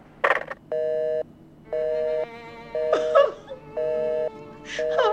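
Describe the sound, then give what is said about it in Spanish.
A payphone line cutting off: a steady electronic beep repeats about five times in an even on-off rhythm, loud, with a few short bursts of laughter and voice between beeps. “Bueno, estoy hablando desde un teléfono público y ya se va a cortar.”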